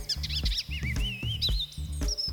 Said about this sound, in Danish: I lighed med stæren er guldbuen en mester i at efterligne andre fuglestemmer.